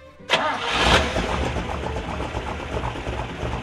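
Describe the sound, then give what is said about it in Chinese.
A car engine catches with a sudden burst, revs up briefly, then settles into a steady, low, rumbling drone, fairly loud with no voices. The car's wheels spin, splashing mud everywhere, as the car is stuck in the mud. “车轮一转，泥浆就溅得到处都是，汽车陷进烂泥里，动都不能动。”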